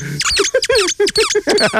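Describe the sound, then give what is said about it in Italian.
A squeaky opossum dog toy squeezed again and again, giving about eight short, shrill squeaks in quick, uneven succession, fairly loud. “Vedi che fa ridere? Fischiatore!”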